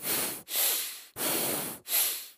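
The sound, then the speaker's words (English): Slow nasal breathing with the mouth forced shut: airy hissing inhales and exhales alternating in a steady rhythm, with brief pauses between breaths and no talking. “Forcing my mouth shut”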